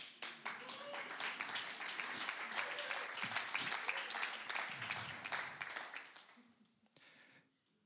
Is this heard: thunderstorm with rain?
no